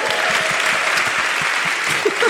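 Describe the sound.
A crowd applauds steadily, a dense patter of many hands clapping at an even, fairly loud level, with a voice briefly cutting in near the end.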